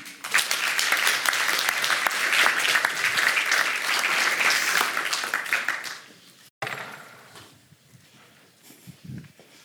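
An audience applauds loudly and steadily for about six seconds, a dense patter of many clapping hands, then it breaks off abruptly and only a few scattered claps and faint rustling remain.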